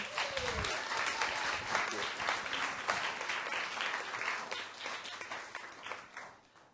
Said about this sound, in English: I've never seen such a still audience in all my life. Ladies and gentlemen, give a big round of applause.